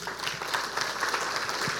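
A church audience claps steadily at the pastor's request, a dense, even wash of many hands with no single claps standing out, holding at a fairly constant loudness throughout.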